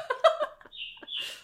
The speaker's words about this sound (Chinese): 小鸟附和我们。